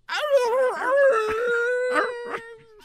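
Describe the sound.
A person's voice imitates a dog's howl: one long, wavering, drawn-out wail held fairly loud for nearly three seconds, with a few breathy catches before it fades.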